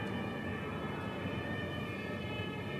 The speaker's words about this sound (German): Naja, Sirenen sind nie schön, aber vielleicht ist ein Baum herumgefallen, kann sein.